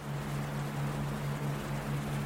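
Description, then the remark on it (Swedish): A boat speeds over violent waves carrying injured people away from an island after an eruption: its engine drones steadily, a low humming tone under a constant rush of wind and water noise, with no breaks across the whole stretch. “Det guppar och slår av de våldsamma vågorna och båtens höga hastighet.”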